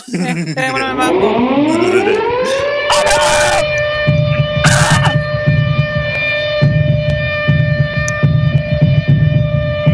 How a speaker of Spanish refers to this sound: Ya, activa la sirena,